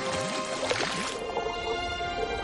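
Bubbles gurgle up through seawater to the surface during a dive in a quick cluster of rising, burbling pops, followed by a softer watery hiss and murmur as the bubbling fades out.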